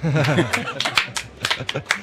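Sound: audience applause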